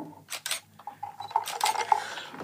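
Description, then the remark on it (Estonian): Ice clinks into a glass, followed by a series of bright, ringing taps and scrapes as a cocktail made with habanero-chili-flavoured gin is stirred, with sharp metallic tinks around a kilohertz and no voices. “aga mis te vahepeal kuulsite taustal pandi klaasi jääd ja segati kokku hääd jooki”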